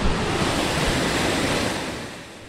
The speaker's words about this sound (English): That's the sound of water going over Raftsman's Memorial Timber Dam on the west branch of the Susquehanna River near downtown Clearfield.